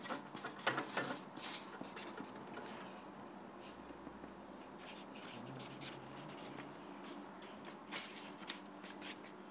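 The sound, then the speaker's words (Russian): Steady scratching of a pen or marker writing out a verse on a surface, a continuous stream of short strokes with brief pauses, fairly faint and with no voices. “Кола Никро Бишми, давайте мы этот посуд тоже выпишем.”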